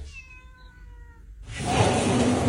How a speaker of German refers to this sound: Leute, ich komme gerade nach Hause und ich höre so ein Miau ich denke, wo ist meine Katze eingesperrt?